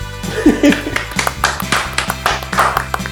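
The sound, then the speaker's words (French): One person applauds themselves with a steady series of sharp hand claps, about a dozen in three seconds, over a low humming music bed. “voilà, je m'applaudis aussi.”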